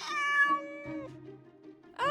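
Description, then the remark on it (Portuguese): A cat stuck up an avocado tree, clinging to a branch, meows: one long drawn-out wavering cry followed after a short pause by the start of a second loud meow; no voices. “Mas que barulho é esse? Isso é um gato?”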